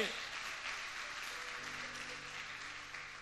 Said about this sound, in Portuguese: Aplauda mais uma vez Ele.